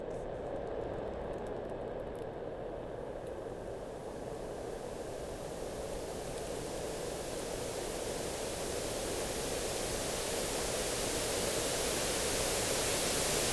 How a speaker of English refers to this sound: I'm director of the Robert B. Haas Family Arts Library at Yale the white noise machines at the arts library have been here since this reiteration of the arts library um, was established back in around 2008